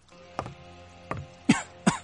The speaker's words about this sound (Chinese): 什么东西？这么呛鼻子？ 进来的人许是闻不得过于浓郁的香水味儿，猛地咳嗽一阵。